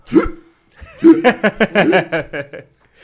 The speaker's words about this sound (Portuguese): Se, se eu der um arrotinho.